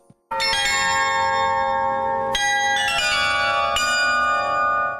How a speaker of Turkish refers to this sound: Şimdi bu dev Yiğnisvart'ın, Bach'ın en az diğerleri kadar ünlü eseri Tokata'yı Carillon'da seslendirişine kulak verelim.